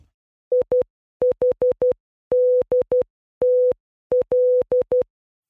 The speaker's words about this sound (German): Weißt du, was du da gerade gehört hast? Ich gehe mal davon aus, dass es äh, Morse Code war und wahrscheinlich war es SOS. ja, es war Morse Code, aber es war nicht SOS. Ah, okay. es, es war IHDTL, also ich habe dich trotzdem lieb.